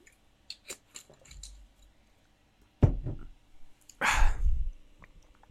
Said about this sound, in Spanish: Pero bueno, voy a tomar un poquito de agua, porque pues, los riñones hay que cuidarlos.